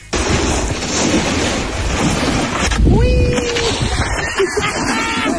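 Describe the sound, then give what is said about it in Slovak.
A voice imitates a truck stopping and releasing air from its brakes, done when stopping a car: a long, loud, breathy hiss lasting several seconds, with a brief whistling squeal partway through. “Tak ja mám svoj zvuk, keď idem v aute a napríklad niekde zastavím, tak spravím ako keď zastaví kamión a vypušťa vzduch z brzd.”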